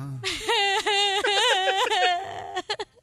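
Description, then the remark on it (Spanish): A voice imitates a child crying, a wavering, whiny wail held for about two seconds with rising and falling pitch, ending in a few short sobbing gasps. “¿Quién está llorando, Pepito o tú?”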